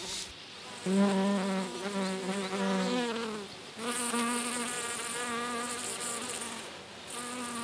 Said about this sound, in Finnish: Ja tähän vikkasen mehiläisten pörinää, koska me nauhoitin sitä meidän valkomesikkä pellosta.